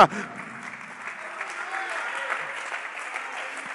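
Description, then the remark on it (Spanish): A church audience applauds steadily at the preacher's call, a dense wash of many hands clapping at a fairly even level for a few seconds. “Otra vez, por favor, aplaude.”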